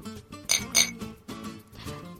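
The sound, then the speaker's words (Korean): Two bright, ringing glass clinks in quick succession in a toast at a company staff dinner, clear over a low murmur of voices in the background. “우리 올해도 힘내서 일해봅시다. 건배! 건배.”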